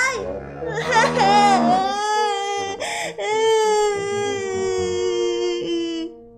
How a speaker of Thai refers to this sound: เขาจึงได้แต่นั่งร้องไห้อยู่ที่ริมทาง